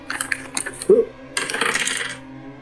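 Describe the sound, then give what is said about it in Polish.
Dice rolled for a Keep It Together roll, coming up 15, clatter across a hard surface: a scatter of quick clicks, one brighter ringing knock, then a second burst of rattling that tumbles for about a second before stopping. No one speaks. “Wyjrzyj, żeby zobaczyć, jeśli chcesz i rzuć na Keep It Together.”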